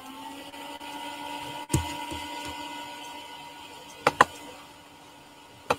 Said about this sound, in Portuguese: isso aí não é barulho de liquidificador, é sim o computador do Tobias que esquenta